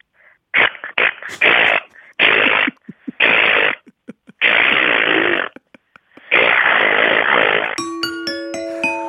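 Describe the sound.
A person imitates with their voice a drill used in waterproofing work to fix a leaking bathroom, making loud buzzing, grinding bursts in several broken-up segments of varying length, then a long sustained whirr that ends in a brief tonal chime.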